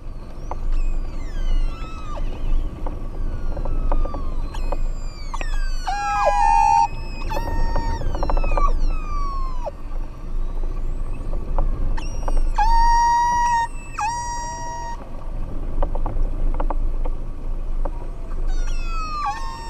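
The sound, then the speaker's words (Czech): Orca calls recorded underwater during an orca hunt, heard while snorkeling at the surface: a busy stream of squealing, rising and falling whistles and pulsed cries, scattered with sharp clicks, over a steady low watery rumble, with no talking. “Tak pojďme si teď poslechnout to, co tam vlastně v té vodě slyšíme, když s maskou, šnorchlem, ploutvemi, kamerou, foťákem a samozřejmě suchým potápěckým oblekem ležíme na hladině a pozorujeme takový lov kosatek.”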